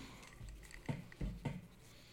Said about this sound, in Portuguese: fecha essa torneira para mim. Mas bota alguma coisa embaixo que, ele, que a água cai numa plataforma que não faz. Pá, pá, pá, pá, que tá rolando. Você tá ouvindo?